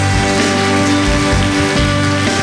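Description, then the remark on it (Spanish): An audience applauding loudly for the Lord during worship, a dense, continuous patter of many clapping hands lasting the whole stretch, with sustained instrumental tones and a low pulsing bass underneath. “Y todos nosotros damos fuerte aplauso al Señor.”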